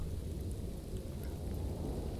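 wind and rain

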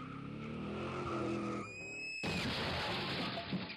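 car tires skidding

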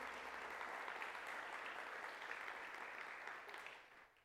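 audience applauding

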